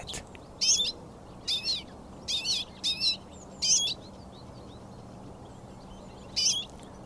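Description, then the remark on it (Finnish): A large flock of redpolls gives bright, buzzy jingling calls in short clustered bursts, several overlapping, then a pause before one last call, over a steady low background hiss. “Ison urpiasparven helinä sumu ja kutsuää.”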